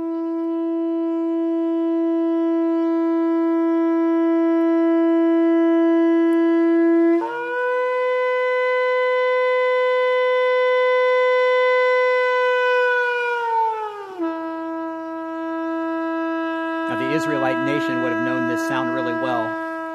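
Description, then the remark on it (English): A relatively small ram's horn shofar blares in long, loud sustained blasts, jumping up in pitch midway and dropping back, then breaking into a burst of short, rapid staccato notes at the end. “the sound of a shofar, and it's an instrument that was made from the horn of a ram.”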